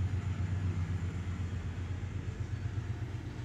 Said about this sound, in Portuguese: Olha um comboio.